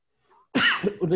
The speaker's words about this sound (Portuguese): Espirra, espirra, espirra, saudável.